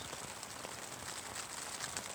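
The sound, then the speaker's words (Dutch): Rain patters steadily on tent fabric in unsettled weather with heavy rain showers and gusts of wind, a dense continuous hiss of soft drops with no pauses, fairly quiet, with no voices. “Dan weer enorme regenbuien en dan weer windvlagen.”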